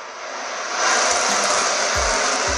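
A steady, loud jet-like roar of an airplane overhead, swelling slightly after the first second and holding strong, with a couple of low thuds near the end and no voices.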